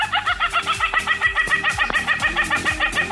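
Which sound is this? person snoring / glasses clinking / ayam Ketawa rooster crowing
ayam Ketawa rooster crowing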